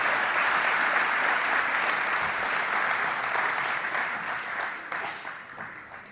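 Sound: audience applause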